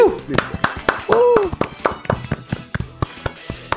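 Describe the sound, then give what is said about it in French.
A small group claps in a quick, uneven patter of sharp slaps, congratulating themselves, with a couple of rising-and-falling whoops of cheering over the applause. “Je pense qu'on peut se féliciter, bravo tout le monde.”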